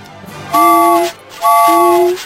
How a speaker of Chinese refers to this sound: 小火车拉响汽笛，给自己加油打气。